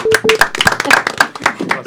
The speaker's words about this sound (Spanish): Aplauso para la gente de Connecticut.